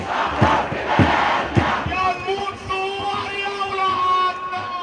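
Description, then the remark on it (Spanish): A large opposition protest crowd in Tahrir Square chants and shouts together in rhythmic bursts, with loud voices and sharp claps or drum hits early on, then sustained massed cries and whistles; thousands of people demand Morsi's departure. “En la Plaza Tahrir se producía la concentración más multitudinaria de la oposición.”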